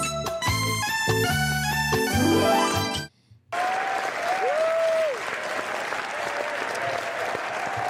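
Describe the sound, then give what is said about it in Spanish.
A short musical jingle cuts off, then a crowd breaks into sustained, loud applause with a few whistles, the clapping continuing steadily for several seconds. “Gracias, público. ¡Qué bonito público!”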